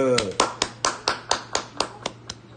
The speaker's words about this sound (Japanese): 岡本太郎さんの、えー、誕生日でございます。拍手。